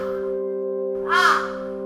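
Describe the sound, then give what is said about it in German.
A single harsh raven caw rings out midway, fairly loud, over a steady low humming drone that continues throughout. “der Rabenrätin Rosmarie wieder durch die klitzekleine windschiefe Hütte am Gipfel des Schneeberges”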